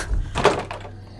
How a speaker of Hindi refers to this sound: जो भी हो मुझे दरवाजा खोलना ही चाहिए ये सोचकर मैंने एक मोमबत्ती जलाई और मैंने जब दरवाजा खोला